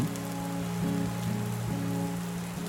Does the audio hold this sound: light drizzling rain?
yes